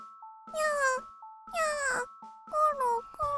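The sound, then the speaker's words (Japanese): Three drawn-out meows from a spotted cat sitting on a veranda on a sunny day, evenly spaced, each rising then sliding down, with a faint steady electronic tone sounding alongside. “お天気のいい日にブチ猫が縁側に座ってしきりに顔を撫で回しておりましたこの猫はネズミを一匹も取らぬくせに物を勝手に取っていく泥棒猫で近所から嫌われていましたがにゃーにゃー”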